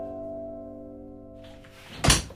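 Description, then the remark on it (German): A door is shut with one heavy, dull thump near the end, after a steady low humming tone fades out. No one speaks. “Ja, so geht das so. mit der Tür.”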